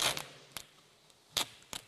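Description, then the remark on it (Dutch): Several short, crisp ripping bursts of adhesive tape being pulled off a roll, with uneven gaps between them and no voices. “Zo goed tape hoor dit hé.”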